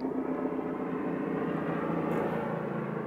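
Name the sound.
helicopter flying overhead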